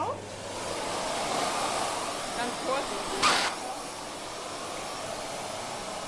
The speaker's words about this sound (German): Diese neuen Pfeifen sind nicht so extrem äh, mit Feinstaub, aber die, die anderen heute, halt, die waren extrem voll. Ja. Und dann wird es eben mit einem speziellen Staubsauger, werden die ausgesaugt.